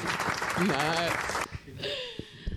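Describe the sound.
An audience gives a dense burst of clapping for a guest that lasts about a second and a half, with voices calling out over it, then breaks off into people talking.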